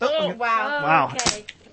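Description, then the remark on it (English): A Durex regular latex condom snaps sharply once as it is pulled and stretched, a quick loud crack right after excited voices exclaiming, followed by a faint smaller click. “you heard that snap”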